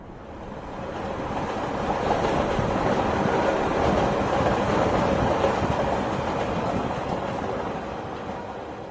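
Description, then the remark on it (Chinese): A moving passenger train that has been travelling for several hours rumbles steadily, a dense broad roar with faint rhythmic rattling from the rails, swelling in at the start and easing off toward the end, with no voices. “列车已经行驶了好几个小时。”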